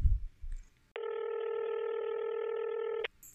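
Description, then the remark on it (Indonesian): A telephone line tone as a call is placed plays as one steady, clear electronic buzz for about two seconds, then cuts off abruptly, with only faint background noise before and after. “Oke, kita telepon ya coba ya.”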